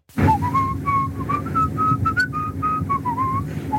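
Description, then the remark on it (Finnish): A person whistles the lively Pirates of the Caribbean film theme, a steady run of clear, bright notes that rise and fall in a quick melody, with a low background hum underneath and no talking. “Pirates of Pirates of the Caribbean.”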